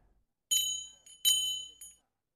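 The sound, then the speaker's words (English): Two bright, clear bell rings sound in quick succession, each struck sharply and ringing out briefly, followed by a softer trailing chime. The bell is fairly loud, with nothing else audible. “Then a bell began to ring.”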